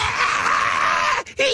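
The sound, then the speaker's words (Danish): A voice imitates a loud, high-pitched squealing whine, held steadily for over a second, then cut by a brief gap before it squeals again. “Så en stukket gris.”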